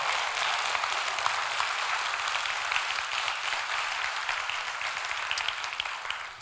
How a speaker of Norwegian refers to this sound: Ok, Skal vi klappe for de tre gratis kaffe